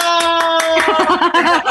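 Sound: applause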